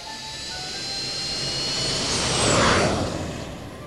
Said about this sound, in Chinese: 允许起飞。塔台里的工作人员正在指导飞机起飞。乘客们已经系好了安全带。在跑道上滑行的飞机啊，速度比赛车还要快。